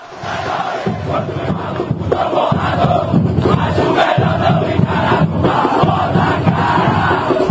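A large crowd of football fans sings a chant together, loud and sustained for the whole stretch, voices merging into one dense, rhythmic roar with no individual speech standing out.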